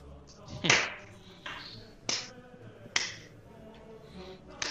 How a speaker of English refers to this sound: We getting a slow clap? Is that what that oh, was? I thought it deserved one.